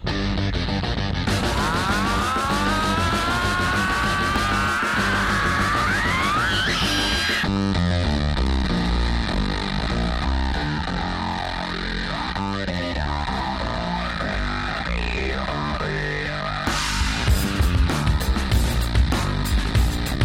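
A loud, heavily distorted rock song: fuzzy guitars and pounding drums, with squealing, upward-sliding guitar effects early on before the band settles into a dense, driving riff.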